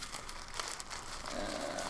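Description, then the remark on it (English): Continuous crinkling and rustling of paper slips being shuffled around inside a bag as someone chooses one, with small irregular crackles throughout and no voices. “I didn't know choosing a piece of paper from a bag could be so hard.”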